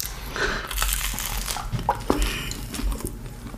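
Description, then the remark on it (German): Someone drinks water, with crinkling plastic and a few soft gulps and clicks over a low background hum. No one speaks. “Ich trinke mal was.”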